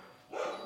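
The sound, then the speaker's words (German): A pet dog named Stella barks once, a short, somewhat muffled bark with a sharp yip at its end, heard alone with no talking. “Mir würde jetzt ähm, Lou von The Unbox Therapy sagen, äh, This show today is not a non-barking show.”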